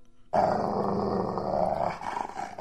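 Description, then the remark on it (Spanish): A flat-faced fighting dog growls low and continuously, a rough rumbling snarl that starts abruptly and holds for a couple of seconds, easing slightly toward the end. “Era un perro muy, se oía muy de esos perros chatos de pelea.”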